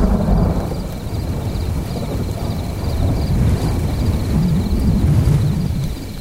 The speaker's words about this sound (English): I lay there and a thunderstorm passed over. The front moved through with a breeze and I could hear the chanting chorus of crickets and the thunder all around me.